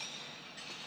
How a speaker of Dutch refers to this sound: Het geluid dat je hoort is het geluid van het lopen over 10.000 ijzeren gezichten in het Joods Museum in Berlijn.